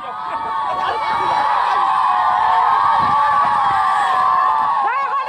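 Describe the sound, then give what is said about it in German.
A large crowd of villagers cheers and shouts continuously as a plane lands, with whoops and high children's voices layered into a dense, loud, sustained roar of excitement, welcoming the arrival. “So hört sich das an, wenn Matthias Glas landet.”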